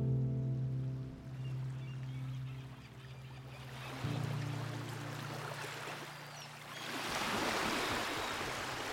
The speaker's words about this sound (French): le bruit d'une mouette, les bateaux, le clapotis des vagues sur la coque.